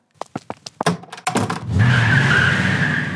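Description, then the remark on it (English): A voice imitates a car screeching away: a quick run of sharp clicking taps, then a loud, sustained high-pitched squeal with a rumbling undertone that holds steady to the end. “running away, and then and the door shut, and a car drives off. I can do a sound effect.”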